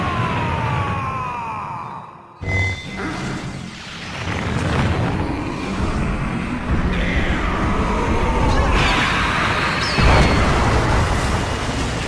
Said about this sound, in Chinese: 好了，课就上到这里吧。暗黑斯特比姆爆炸！